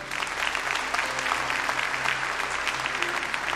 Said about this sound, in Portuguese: Pode aplaudir o Senhor.